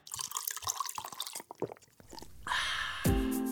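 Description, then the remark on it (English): Coffee is poured into a cup, preceded by a few small clinks and drips, then a steady splashing stream whose pitch rises as the cup fills. No voices. “So grab your cup, tumbler, mug because we're starting right now.”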